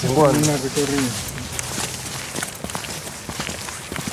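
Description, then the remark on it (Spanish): Horse hooves clop steadily along a path in a loose, uneven rhythm as a rider comes along on horseback to keep watch, following a brief stretch of someone speaking at the start. “Hay un paisa que viene a vigilar, ves que está en la vuelta de caballo.”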